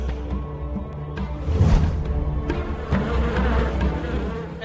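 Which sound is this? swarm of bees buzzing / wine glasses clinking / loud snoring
swarm of bees buzzing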